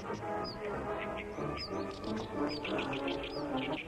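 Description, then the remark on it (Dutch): Birds chirping in short, bright bursts about once a second, repeating over a steady, busy background hum of outdoor ambience. “Gouden vogels.”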